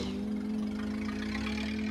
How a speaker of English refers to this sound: It's just a car. It must have backfired.